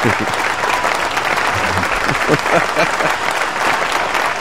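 applause

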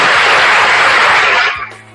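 round of applause

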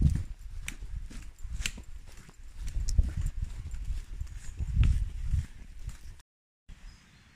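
horse hooves clip-clopping

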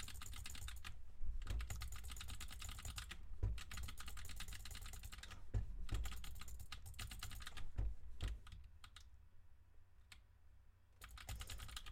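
computer keyboard typing

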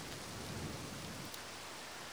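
rain falling

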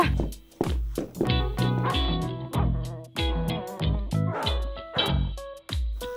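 dogs barking

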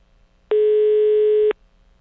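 telephone line tone

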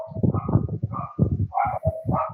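many dogs barking

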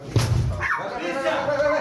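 sniffer dog barking

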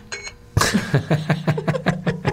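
alarm beeping

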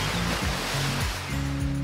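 waterfall rushing water

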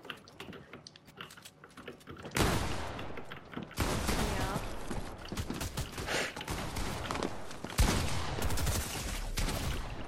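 video game gunfire bursts

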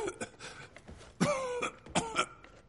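coughing fit

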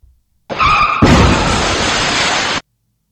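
car crash sound effect

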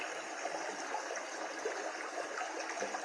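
flowing stream water

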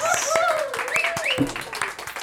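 round of applause

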